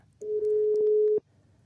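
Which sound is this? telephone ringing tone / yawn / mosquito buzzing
telephone ringing tone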